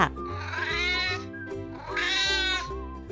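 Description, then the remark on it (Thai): A cat gives two drawn-out, rising meows in quick succession, loud, with a low steady hum running underneath. “อีกสิ่งหนึ่งที่สำคัญที่สุดก็คือ พวกชาวยุโรปเหล่านี้ พาสัตว์เลี้ยงเข้ามาในเกาะนิวซีแลนด์ด้วย เช่น กระต่ายนักขุด หมานักดมกลิ่น แมวนักล่า”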